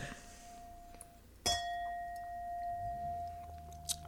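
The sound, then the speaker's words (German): A single bright clink of wine glasses filled with Schwarzriesling touching in a toast, followed by a clear, sustained ringing tone that slowly fades over a couple of seconds, with no one speaking. “Stoß halt an. Glückwunsch, Mikrofon.”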